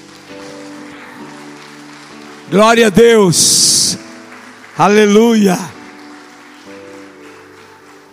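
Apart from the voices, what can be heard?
audience applauding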